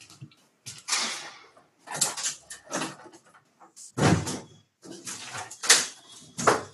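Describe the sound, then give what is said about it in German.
A window being closed: a series of rattling, scraping movements and clunks spread over several seconds, fairly loud, with no one talking. “Ja, ich mache das Fenster zu, wenn ich da irgendwas hämmern.”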